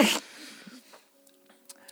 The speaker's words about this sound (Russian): Я сейчас мы... продолжу чихать.